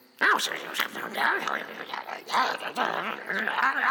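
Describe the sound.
Low, rumbling grumbles and growls rise and fall continuously for a few seconds, several voices muttering and snarling together with no clear words, starting again after someone stumbled or was pushed.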